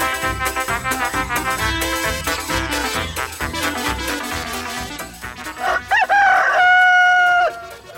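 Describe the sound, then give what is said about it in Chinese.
A rooster crows once in the early morning, waking everyone, a loud cry that rises sharply, then holds a steady high pitch before cutting off, following several seconds of dense, busy background sound. “公鸡咕咕的叫声唤醒了大家。”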